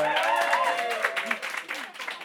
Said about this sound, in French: Les Saint-Laurentiens, Laurentiennes, on applaudit.